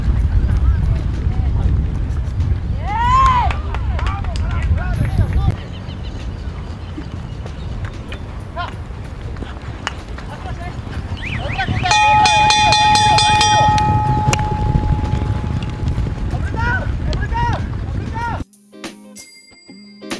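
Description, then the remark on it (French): A polo horse's galloping hooves pound steadily, heard from the saddle, with heavy breathing and rushing wind; voices shout, and a bell-like tone rings partway through before it cuts off. “vous venez d'écouter l'ambiance au-dessus du cheval de polo.”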